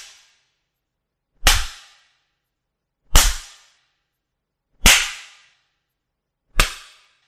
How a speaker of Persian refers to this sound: از گاری شلاقی بیرون می کشد. ضربه های سختی به زمین می زند.